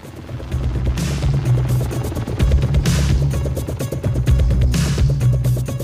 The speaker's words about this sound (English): You can hear like the there's the helicopter, mm-hmm.